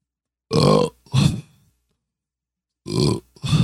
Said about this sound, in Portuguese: Puta papo sério, o cara mete três arroto né, mano?